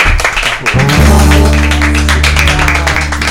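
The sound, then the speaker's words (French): An audience applauds a guest, a dense and steady patter of many hands clapping, joined after a moment by sustained low musical tones underneath that continue to the end. “Et eh ben, je pense qu'on peut applaudir notre bah, invité.”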